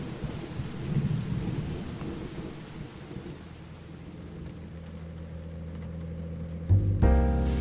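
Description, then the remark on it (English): Steady rain hisses throughout while a deep roll of thunder rumbles low and heavy near the start, fading into a constant low drone, with a sharper thump and rise near the end. “I've been driving in the rain for hours, going nowhere in particular.”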